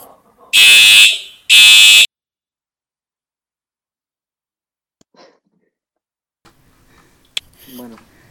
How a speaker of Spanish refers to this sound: Está claro que escucharemos la alarma bastantes veces más antes de.